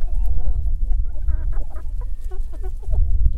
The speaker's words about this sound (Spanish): Hace algunas semanas tuve la oportunidad de conocer su granja de pollos ecológicos, a la que estas aves llegan con poco más de un día.